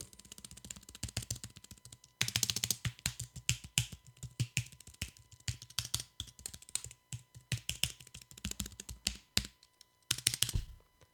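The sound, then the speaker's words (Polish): Steady typing on a quiet keyboard held right up to the microphone: rapid, soft clicky keystrokes in quick bursts, with brief pauses around two and ten seconds, and no voices. “Ja teraz może przysunę tę klawiaturę pod sam mikrofon.”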